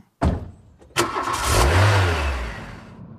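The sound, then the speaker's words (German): A car engine cranks and catches with a sharp burst, then revs up into a rising, rumbling drive that gradually fades slightly as the car is driven down and back up again through countryside; loud, no voices. “Selbstverständlich benutze auch ich jetzt in dieser herrlichen Natur für meinen erneuten Ab- und dann wieder Aufstieg das, was sich gehört, das Auto.”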